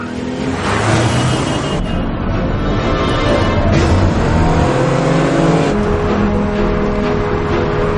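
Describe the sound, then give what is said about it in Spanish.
A car chases an SUV, driving at full speed along the sidewalk and following it through an intersection, engines roaring loudly and steadily for the whole stretch, with revving surges and shifting pitch, and no voices. “Llega a la intersección y toma el camino del todoterreno.”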